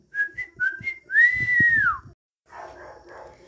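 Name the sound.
whistling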